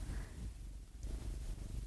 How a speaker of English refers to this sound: Is she purring? Yeah.